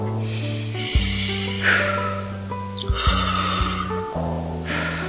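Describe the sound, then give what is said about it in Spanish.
Slow, deliberate breathing as part of a relaxation exercise, air drawn in through the nose and let out through the mouth, as a few soft airy whooshes over a steady, sustained background of calm relaxing music. “Como toda técnica de relajación, lo primero que debemos hacer es conectarnos con nuestra respiración, tomando aire por la nariz y botándolo por la boca.”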